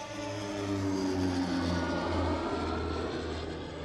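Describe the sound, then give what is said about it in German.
A hail-defence propeller plane in Rosenheim drones steadily overhead, its engine a deep harmonic hum with a slight pitch shift as it passes, loud and continuous with no voices. “Ebenfalls umstritten ist der Einsatz von Hagelfliegern.”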